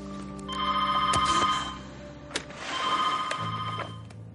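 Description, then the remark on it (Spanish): A telephone in a museum rings in two long electronic bursts with a brief gap between them, a bright, warbling tone with steady harmonics, fairly loud and with no one speaking over it. “Quiero que conteste al teléfono y convenza a quien sea de que estamos cerrados por un problema técnico, ¿entendido?”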